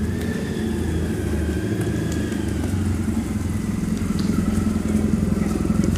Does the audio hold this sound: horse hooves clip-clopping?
no